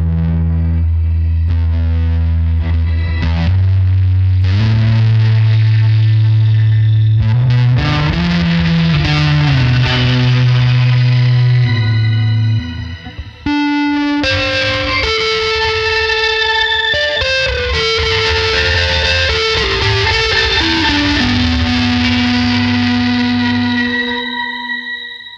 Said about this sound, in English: I actually feel like that's a sound I would use more. The problem is, is now the fuzz is at the end of my chain, right? Which means, you know, there's a lot of other repercussions for that.